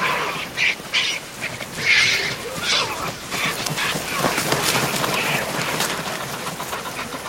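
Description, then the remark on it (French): Vultures fly in and land less than a metre from a cheetah with its gazelle kill: a busy flurry of rustling wingbeats and scuffling with a few sharp squawks near the start, then a steady, fairly loud clatter of birds landing and jostling. “Regarde-les voler vers nous, ces fichus vautours ils adorent me piquer ma viande fraîche.”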